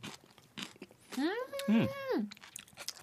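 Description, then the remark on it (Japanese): Crisp chewing of Yamagata dashi, crunchy diced vegetables with kelp in a soy-sauce-based seasoning, poured over tofu and eaten in a radio studio, a few short crunches at the start and end, with a drawn-out appreciative hum from the eater in the middle. “シャキシャキした音が聞こえる。”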